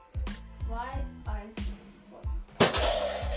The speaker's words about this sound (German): Zweiter Schuss mit der Nerf. Ja, auch im zweiten versenkt.